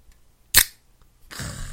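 A can of leftover Korean beer is cracked open: one sharp metallic snap, a short pause, then a steady fizzing hiss of carbonation that continues to the end. No one speaks.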